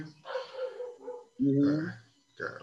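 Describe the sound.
Dogs bark outdoors in three drawn-out, yelping bursts, somewhat muffled as if heard through a wall, with a person's voice mixed in.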